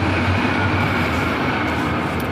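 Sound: train passing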